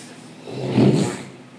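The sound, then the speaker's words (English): A single buzzy mouth raspberry (mouth fart), made by blowing through the lips. It swells to a fluttering peak and then trails off, with no talking around it. “I just I see him mouth fart, then I got a mouth fart.”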